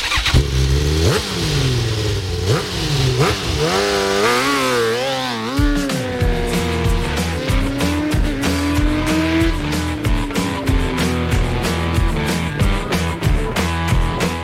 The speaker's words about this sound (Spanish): las motos. Bueno, se han disputado ya siete carreras del Campeonato del Mundo de Motociclismo.